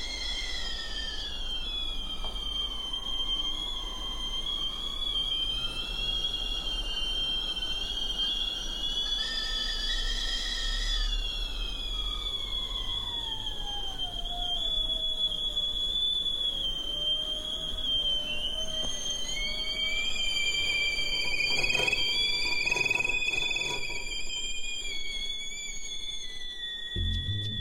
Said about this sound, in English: by picking up teapots so they got quiet and then putting them back down so that they would whistle again and they were not beautiful sounding teapots they were those teapots with shrill whistles